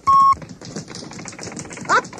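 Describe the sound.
A read-along cassette of the book Go, Dog, Go by P.D. Eastman plays its page-turn signal: one short, steady mid-pitched beep at the start, loud and clean, followed by a voice reading.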